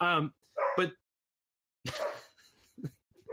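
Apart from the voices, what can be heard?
dog barking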